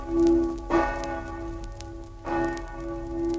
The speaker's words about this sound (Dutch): Heeft heel lang in mijn hoofd gezeten dat uh, eh, ononderbroken de kerkklok luidde. Op al die dorpen was dat, hè? Ja, van de ramp. Van dat de dijken doorgebroken waren.